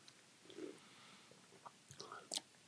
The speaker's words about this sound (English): Uh, let's do some sips, huh? Mm-hmm, mm-hmm. Bombs away.